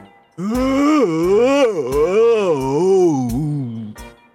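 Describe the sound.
A storyteller imitates a lion, full after eating and patting its fat belly, crying out with one long, loud, wavering wail that rises and falls in pitch for about three and a half seconds, strained and moaning, before breaking off.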